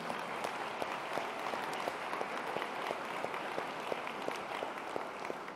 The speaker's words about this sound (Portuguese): Enquanto isso, igreja, dê uma salva de palmas para receber esses irmãos.